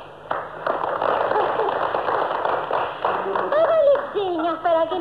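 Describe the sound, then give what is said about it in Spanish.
A crowd applauds a performance, urged to clap more, with dense, steady clapping for several seconds; toward the end, raised voices come in over the thinning applause. “aplaudan más.”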